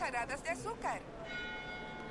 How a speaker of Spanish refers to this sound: ¡Ay, las campanas!